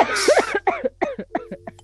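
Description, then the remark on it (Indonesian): A loud burst of coughing: one harsh, forceful cough followed by a rapid string of shorter, hoarse coughs tapering off, with no talking. “jangan batuk dong”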